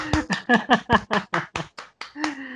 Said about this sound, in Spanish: Por lo tanto, vamos a leer una novela romántica de una de mis autoras favoritas, ella es Santa Montefiore, a quien pido un aplauso, por favor.